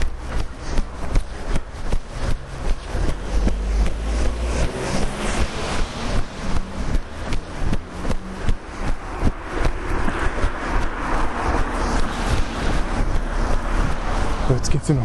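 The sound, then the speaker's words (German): Two or three cars pass along a busy main road outdoors, their rushing engine and tyre noise swelling and fading over steady low rumble, with footsteps and faint voices mixed in. “Daher nochmal die zwei, drei Autos, die ihr jetzt gehört habt.”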